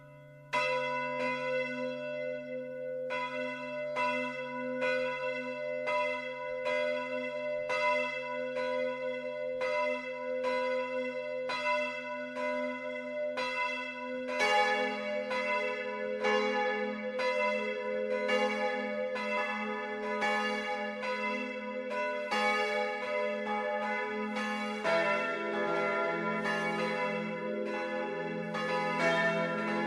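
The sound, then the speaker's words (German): Church bells of the Catholic parish church Mariä Himmelfahrt in Lohkirchen, Upper Bavaria, Germany, ring steadily at 12 o'clock for midday, one bell tolling in a regular rhythm before more bells join after about fifteen seconds in a fuller, overlapping peal. The sound is sustained, with no talking. “Das Mittagsläuten kommt heute von der katholischen Pfarrkirche Mariä Himmelfahrt im oberbayerischen Lohkirchen.”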